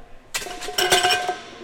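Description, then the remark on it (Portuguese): Metal weights clank together in a quick flurry of sharp, ringing impacts, about half a dozen hits over a second and a half, each leaving a bright metallic resonance, during a powerlifting class at a college. “E esse som que você está ouvindo é lá das aulas que são oferecidas na minha faculdade.”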